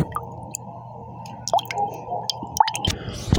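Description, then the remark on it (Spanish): Coffee sloshing and swirling inside a cup as the cup is turned, with soft wet drips and small squishy splashes, a brief bright clink near the end, and no talking. “Le agarro la taza y la doy vuelta para ver cómo gira. Y también oigo cómo, cómo suena el agua.”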